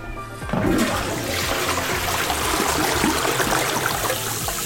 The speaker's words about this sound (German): Ich setze mich jetzt auf die Toilette und dann mache ich Pipi oder Kaka. Geht das alles in den Abfluss, wenn man spült. Und das hört sich so an.